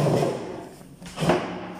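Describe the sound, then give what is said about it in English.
A person moves their chair, which shifts and bumps against the floor, making two dull, scraping thumps separated by a brief pause, with no voices. “That's me rambling my chair.”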